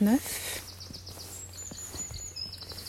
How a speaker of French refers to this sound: Et on est en train de se promener en haut de Villers. On entend plein d'oiseaux. Il fait un temps mais juste magnifique. Grand ciel bleu.